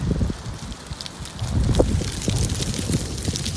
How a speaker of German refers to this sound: Standing on Inspiration Lane, looking toward, oh dear, there's wind whipping up.